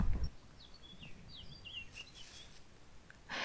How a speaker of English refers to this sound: There's talk on the radio in circles of birds becoming braver, more apparent at the moment. Another one of our collective thoughts, maybe. More bird song, less human noise. You can hear it now.